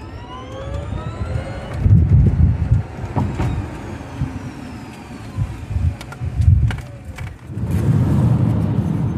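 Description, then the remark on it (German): Steady low rumble of road and tire noise inside a moving electric car, a Kona, on the way to Speyer, swelling and easing as the vehicle rolls along, with faint high whines and no one speaking. “Wir sind auf dem Weg nach Speyer und während ich noch mit dem Stefan gesprochen habe, saß der Simon schon im Auto”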